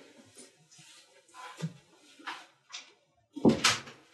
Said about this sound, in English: Sorry, that was my dog walking in. She's like learn how to open doors now. So um, smart.